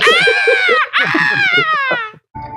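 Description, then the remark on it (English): A voice imitates a woman screaming: a loud, high-pitched, sustained wail with a brief break partway through, then a shrill second stretch that wavers and trails off. “Imagine, imagine getting in that Uber pool and she's just screaming the whole time.”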